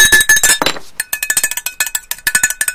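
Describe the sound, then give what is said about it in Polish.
A prison guard bangs on a pot in a corridor while approaching a cell: rapid metallic clanging with bright ringing overtones; the hits come in quick uneven bursts, loud throughout, with a brief pause after the first flurry. “idzie żołnierz, który, strażnik, który wali w garnek, podchodzi do, do, do waszej celi.”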